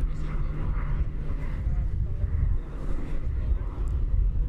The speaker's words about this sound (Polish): Teraz jakiś samolot przelatuje nad morzem, wieje wiatr. Pewnie to bardzo słychać.